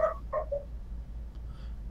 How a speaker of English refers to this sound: I agree with the dog. Oh yeah, my dog is barking at the mail person.